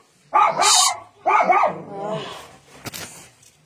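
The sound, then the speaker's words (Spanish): A dog lets out two loud, drawn-out barks, followed by quieter whimpering noises and a brief sharp click near the end. “Hasta los perros comen en la mesa.”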